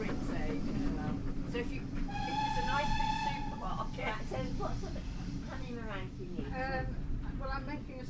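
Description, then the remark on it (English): A train carriage hauled by a tank locomotive rumbles steadily along the track, reaching Lydney Junction, a continuous low roar throughout, while muffled voices talk and a brief high tonal squeal rises above the noise. “We've reached Lydney Junction, where the tank locomotive will be taken off the front of the train and run round to the other end of the train so that it can go back up to Park End.”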